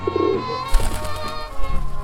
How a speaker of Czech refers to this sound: Hele, holub na střeše!